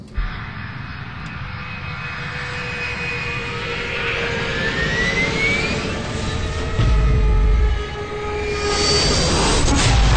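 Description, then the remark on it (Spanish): A jet airplane, Flight 571 with 45 people aboard, roars through takeoff from Montevideo airport, its engines building into a loud, sustained rumble with rising whine, the noise swelling steadily over ten seconds with no voices present. “El vuelo 571 acaba de despegar del aeropuerto de Montevideo, con 45 personas a bordo.”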